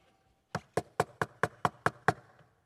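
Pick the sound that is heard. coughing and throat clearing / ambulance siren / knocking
knocking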